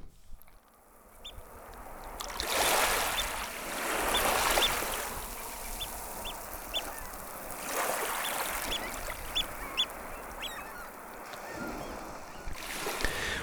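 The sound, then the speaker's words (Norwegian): Calm seaside ambience with soft washes of water rising and falling, while scattered waterbirds call faintly. No one speaks. “Stillheten ved havet er et bilde på stillhet, men det er jo ikke stillhet.”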